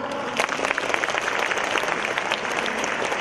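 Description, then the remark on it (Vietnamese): A room full of people clapping steadily, a dense patter of many hands that holds at an even level for a few seconds with no voices on top. “Xin các chị hãy dành một tràng pháo tay để cảm ơn em quay được không ạ?”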